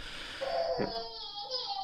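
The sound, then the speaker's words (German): A baby cries faintly in the background, a thin, drawn-out wail with a brief louder catch partway through, against otherwise quiet surroundings. “Und jetzt äh, ist die Sendung durch mit Babygeschrei.”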